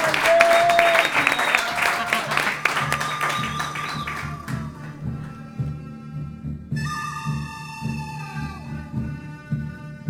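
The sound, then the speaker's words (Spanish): A burst of applause, dense clapping loud at first and thinning over several seconds, followed by a tonal musical sting with bright sustained notes. “¡Aplauso para Santiago!”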